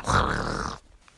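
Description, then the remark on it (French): A voice imitates a steam wand aerating milk, the sound of air entering the milk: one rough, hissing, gurgling burst lasting under a second, loud, then it cuts off into near silence. “oui, je suis forte en bruitage, mais tous ces bruits-là, c'est le bruit de l'air qui rentre dans le lait.”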